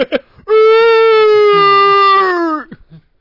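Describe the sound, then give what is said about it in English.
A man lets out a long, loud, sustained howl for about two seconds, his voice imitating wrestler Roman Reigns' mating-call cry from Monday Night Raw, steady in pitch before trailing off, with brief murmurs before and after. “It wasn't a thirty minute promo to start it, and Roman Reigns didn't do his mating call like he typically does every Monday Night Raw when he's in the ring.”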